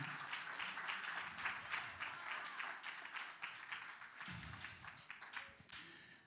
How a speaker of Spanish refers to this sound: Denle un aplauso al Señor con fuerza.